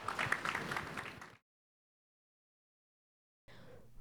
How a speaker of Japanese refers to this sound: 盛大な拍手をお送りくださいませ